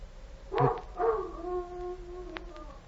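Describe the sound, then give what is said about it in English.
A wild dog yelps twice and then lets out a long, drawn-out howl that slowly sinks in pitch, coming from behind a rock, clear with no one talking. “Sounds like a dog howling.”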